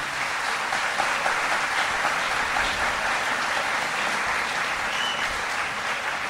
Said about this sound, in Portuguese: Gostaria mesmo de ter muitas mãos para retribuir o aplauso de vocês com muita alegria, viu